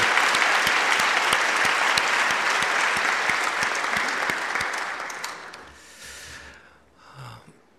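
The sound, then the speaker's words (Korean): A church audience gives applause of glory to God, a loud, dense, steady wash of many hands clapping for about five seconds, then it fades out, followed by a brief breathy sound and a faint murmur. “영광의 박수 올려드리겠습니다.”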